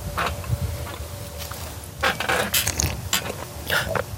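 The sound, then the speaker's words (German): A noisy slurp of salmon-coloured rosé wine made from Spätburgunder grapes, drawn in over a couple of seconds in airy bursts during a wine tasting, followed by a shorter slurping pull near the end, with no talking. “und dann schlürfe ich das. So hat man das gehört?”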